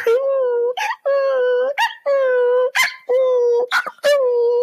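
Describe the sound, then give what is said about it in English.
A person howls like a dog in five loud, sustained, wavering cries, each broken off by a sharp breath, with no other talk. “I'm going to turn into a doggy.”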